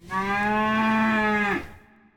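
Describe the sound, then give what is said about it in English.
A single long, steady cow moo, loud, holding a strong low pitch for about a second and a half before cutting off abruptly, with no voices. “And massage our cows every day so they produce the finest milk for our cheeses.”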